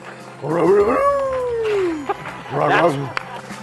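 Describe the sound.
A man vocally imitates a cartoon dog, giving a loud bark that stretches into a long sliding whine, then a second shorter bark-like yelp.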